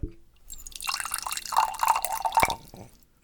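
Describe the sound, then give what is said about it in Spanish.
Water pours steadily into a glass for someone to drink, about two seconds of splashy gurgle with a faint rising pitch as it fills, ending with a small clink and drip. “Tómate regalo de mi agua.”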